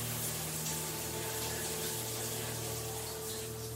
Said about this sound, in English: I was suddenly woken up by the sound of water. It sounded like someone had turned the shower on in the bathroom.